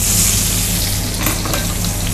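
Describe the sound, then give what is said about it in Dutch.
Steady, loud sizzling and crackling of potatoes frying in a hot pan, with a few sharper pops and stirring scrapes near the middle, and no voices. “En wat ik doe, ik ga gewoon de aardappels erbij gooien.”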